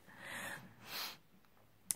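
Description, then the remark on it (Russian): Soft snoring: two breathy, rasping breaths, one long and one shorter, quiet, followed by a brief sharp click near the end. No one speaks. “Не обращайте внимания, это пусть и так храпит.”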